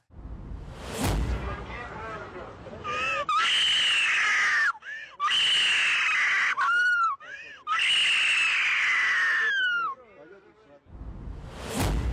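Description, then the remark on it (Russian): A girl in France screams hysterically after a police officer pushes away the balloon she was hitting him with: three long, loud, shrill wails, each cut by a brief gasping pause, with a short rushing burst of noise before and after. “Ее разрывает истерика, как будто ее ударили, наступили на ногу, вывернули руку.”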